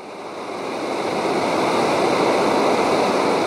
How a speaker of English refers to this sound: founder of the Native Fish Society, muses on the banks of the fast flowing Salmon River in Oregon.